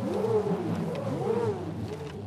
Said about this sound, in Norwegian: De lydene vi hører litt i bakgrunnen her, kommer fra rekonstruksjoner av forskjellige instrumenter fra steinalderen